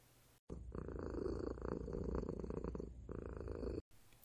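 A cat purrs steadily, a deep continuous rumble with a gentle rhythmic pulse lasting a few seconds, heard alone without any talking.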